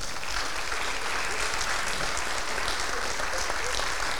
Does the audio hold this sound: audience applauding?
yes